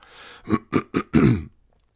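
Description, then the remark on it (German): A person clears their throat with three short, rough bursts followed by a longer, gravelly rasp, loud and without any speech, then silence. “Hab einen Frosch im Hals, oder?”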